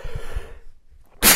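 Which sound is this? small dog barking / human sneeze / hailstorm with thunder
human sneeze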